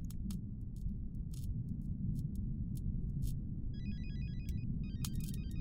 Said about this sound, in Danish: Røgdykkerne hørte lyden af ringende telefoner og åbnede døren til den intimistiske garderobe i det store pulterkammer.